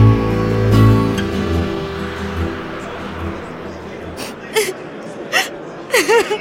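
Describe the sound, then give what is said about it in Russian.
A woman sobs, her voice wavering in whimpering cries broken by sharp, gasping breaths that come in short bursts toward the end. “А, а почему она плачет?”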